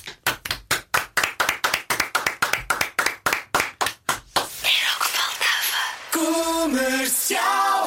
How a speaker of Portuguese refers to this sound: Portanto, como, como, como faz o público, este grande homem só merece uma grande salva de palmas de todos os que nos estão a ouvir.